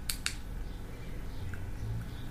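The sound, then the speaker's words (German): Two crisp plastic clicks from fidget cube buttons in quick succession at the start, followed by a quiet stretch of faint hum. “Sie hat meinen Fidget-Würfel in der Hand.”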